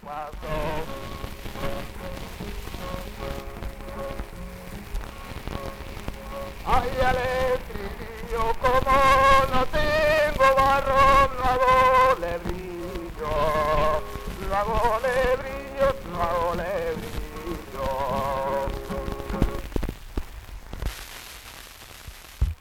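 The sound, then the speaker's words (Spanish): An early-1900s flamenco sevillana recording by a singer, heavy with crackle and hiss, where a wavering, ornamented sung melody rises out of the surface noise after several seconds and carries on before cutting off. “Bueno, estamos escuchando de fondo ahora otras de las grabaciones de …, en este caso una sevillana.”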